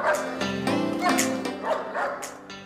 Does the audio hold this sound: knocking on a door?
no